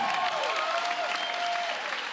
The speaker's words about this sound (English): О, някой да ръкопляска.